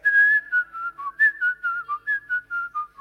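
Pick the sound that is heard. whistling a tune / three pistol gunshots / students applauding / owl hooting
whistling a tune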